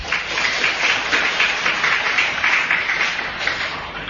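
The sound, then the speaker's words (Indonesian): An audience applauds a speaker, clapping steadily for about four seconds, a dense, even crackle of many hands with no voices over it. “Saya memang pantas untuk diberi tepuk tangan.”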